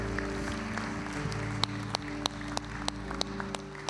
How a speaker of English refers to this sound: Can you give him a hand clap of praise in this house today?